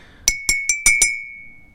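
A mug of cold water is clinked five times in quick, fairly even succession, each bright tap leaving a steady ringing tone that hangs on and fades after the last strike. Clear.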